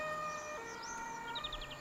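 A faint emergency vehicle siren sounds, its steady tones holding and gliding up and down, with a few quick high chirps near the end and no one speaking.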